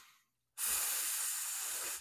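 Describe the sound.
A voice imitates the steady self-noise hiss of a cheap audio cable when mic gain is turned up: after a brief silence, a loud, sustained breathy hiss starts abruptly and holds evenly for over a second.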